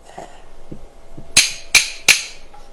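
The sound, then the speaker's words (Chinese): Three sharp, loud knocks on a main gate door by the story character Xie Wubao, in a quick, even rhythm, following a few faint soft taps, with no voices. “谢五宝在大门上这么一敲门，就听有人说了一声：“来了，来了。”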